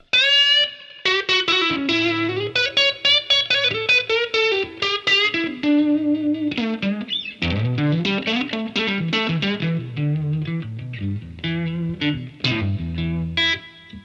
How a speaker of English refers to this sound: And then this one's the Supro drive pedal.